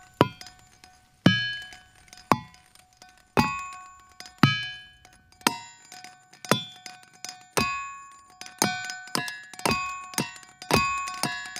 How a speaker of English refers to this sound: So those are things like there's a field in Pennsylvania called Ringing Rocks, where it's this giant boulder field, and you go out there and you hit it with these hammers, and it sounds like a chime or a glockenspiel.